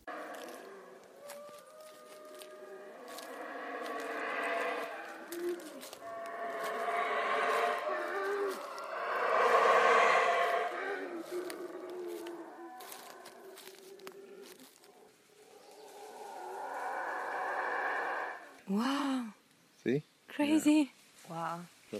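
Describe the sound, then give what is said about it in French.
Howler monkeys roar in long, rising and falling waves of deep, throaty howling, layered and sustained for most of the time, followed by a few short, sharper bursts near the end. “Il s'agit du singe hurleur. Et justement, il est là, juste à côté de nous.”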